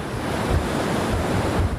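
North Sea waves break and wash onto the beach at Westerland on the island of Sylt, Germany, in a steady, continuous roar of surf, with gusts of wind buffeting the microphone and no voices present.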